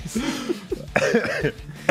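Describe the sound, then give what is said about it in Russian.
Two sharp coughs burst out about a second apart, mixed in with muffled voiced sounds and murmured talk at a moderate level. “Я кашлял, не слушал тебя.”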